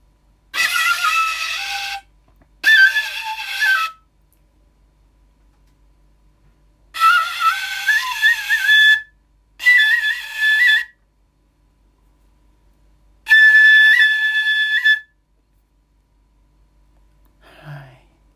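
A shinobue bamboo flute plays five short, breathy phrases of high sustained notes with slight pitch bends, separated by pauses of silence, fairly loud with no talking.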